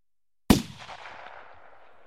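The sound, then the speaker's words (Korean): A single loud gunshot at a baseball stadium during a game cracks out of silence, then rolls into a long echoing tail that fades slowly over the next second and a half, with no voices. “총소리가 끊임없이 울렸다.”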